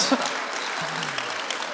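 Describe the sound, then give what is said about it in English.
A crowd applauds steadily, the dense patter of many hands at a moderate level, with a faint voice briefly audible beneath the clapping. “No, no, do not clap for that.”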